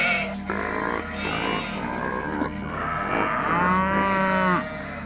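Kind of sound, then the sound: animal, cattle mooing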